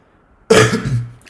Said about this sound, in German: Entschuldigung, ähm, für den Huster